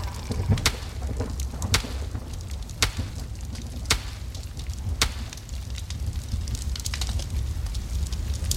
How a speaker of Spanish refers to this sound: ¡Quítese de ahí! ¡Ya está muy fuerte la lumbre!